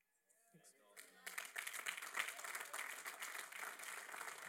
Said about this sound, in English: Well, let's jump to our feet. And we don't need that low clap.